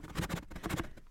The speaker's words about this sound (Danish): Det her, det er lyden af en kop i en kasse.